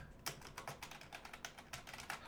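Rapid clicking keystrokes on the small keyboard of a device running Android with a MediaTek P70 processor, whose screen folds onto the keyboard, a quick irregular run of light taps with no talking.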